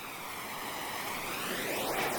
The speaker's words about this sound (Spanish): Vamos a ver si suena. Esto es para que oigan cómo suena con los zapatos. Y fíjense cómo suena el río.